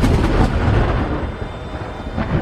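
Deep, continuous rumbling of thunder rolls through a frightening storm in the Alps amid freezing cold, heavy in the low end with a noisy wash above, staying loud and steady without any voices.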